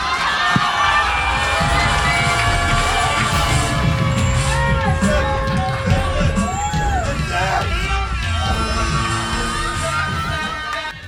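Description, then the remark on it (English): A loud audience cheers and applauds steadily for a battle it just saw, with whoops and shouted voices rising over a dense wash of noise that holds for the full stretch before tapering slightly at the end. “Keep it going for the battle you just saw.”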